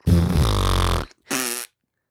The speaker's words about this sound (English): Can we get some air horns? What's what's the opposite of air horns? Like fart noises?